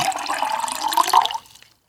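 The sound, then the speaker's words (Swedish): A steady trickle of water, like water poured into a glass for drinking, runs moderately loud for over a second, then fades out abruptly into near silence. No one speaks. “jag var tvungen att ha lite vatten.”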